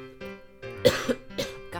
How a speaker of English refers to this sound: why am I coughing so much?